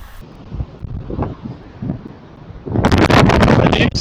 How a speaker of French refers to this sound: un bon son de, vent et de mer qui, qui, qui, qui, envahit un petit peu la digue sur laquelle j'étais. Donc vous entendrez un petit peu l'ambiance.